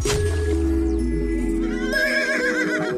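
A horse neighs loudly, a long wavering whinny that rises and trembles over about three seconds, with a low rumble underneath and no voices.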